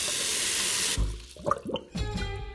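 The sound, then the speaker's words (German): A tap gushes loudly and steadily for about a second, then shuts off, leaving a few scattered splashes and drips followed by a brief ringing clatter. “dieses transparente, flüssige Zeug, das da aus meinem Wasserhahn kommt”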